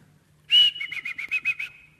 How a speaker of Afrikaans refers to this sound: Jongi gusha, jongi gusha, loop en praat hulle met die skaap. Jy weet, hulle sing vir die skaap en hulle fluit en 'n heeldag. En daai skaap agtervolg daai herder.